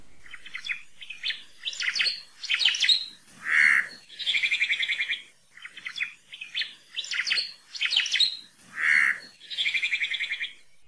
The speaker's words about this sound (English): Oma'o have one of the loudest and most recognizable songs of any Hawaiian forest bird.